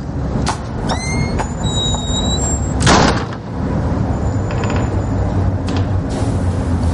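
A building's front door swings open with a thin, high squeak as a woman enters from the street, then bangs shut with one loud thud, all over a steady rumble of street traffic.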